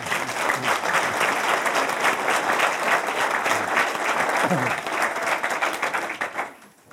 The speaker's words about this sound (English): So, once again, a round of applause for these amazing gentlemen.